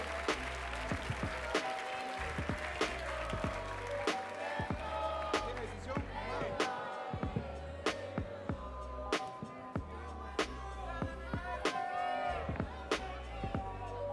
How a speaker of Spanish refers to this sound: ¡Tiempo! Fuerte ese aplauso, fuerte, fuerte, fuerte, fuerte, fuerte.